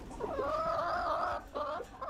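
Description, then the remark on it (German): Chickens clucking, a drawn-out wavering call followed by shorter clucks, fairly loud with no one talking. “Und dort das machen können, was auch Brückenhühner am liebsten tun: an der frischen Luft picken und scharren.”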